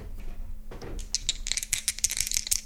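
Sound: dice rattling and rolling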